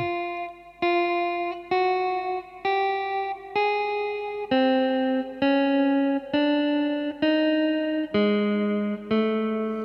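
An electric guitar right-hand picking exercise: about eleven sustained notes picked one at a time at a steady, even pace with a distorted, effects-heavy tone, the pitch stepping upward, dropping, then rising again.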